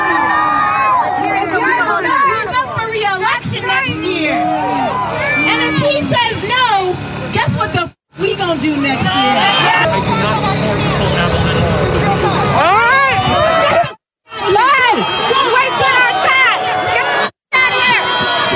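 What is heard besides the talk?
crowd booing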